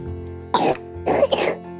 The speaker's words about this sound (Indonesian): Uh, aduh ada yang lagi batuk. Dede itu kok batuk? ada dia yang batuk. Oh, oh iya. Aduh, aduh, aduh, aduh. Harus segera diperiksa itu. Kayaknya sudah berdahak ini batuk. Iya, sudah sudah apa sih berdahak tapi kering gitu kasihan.